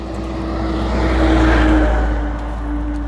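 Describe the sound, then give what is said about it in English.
A heavy semi truck rumbles past, its deep engine roar and steady drone swelling to a peak midway and then easing off slightly, with no one talking. “holy fuck, here comes a semi.”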